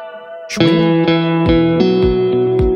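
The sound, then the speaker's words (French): Electric guitar played through a Car Amplifiers Lincoln model amp, styled like a retro American car, strumming a handful of ringing, lightly overdriven chords in a loose rhythm, each one sustaining into the next, with no voices. “Ah voilà, le car amplifiers modèle Lincoln. On écoute le Lincoln si vous voulez bien.”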